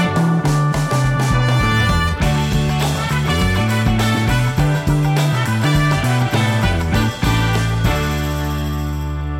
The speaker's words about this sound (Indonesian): Oke sebelum kita mulai bumper dulu om. Atau dua tiga bumper.